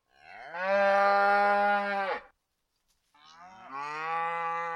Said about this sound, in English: The cows are back again.